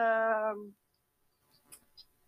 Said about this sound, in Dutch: ja, dit, dit, kan ik dus nooit, nooit laten, hè, katje. Altijd even kat aaien.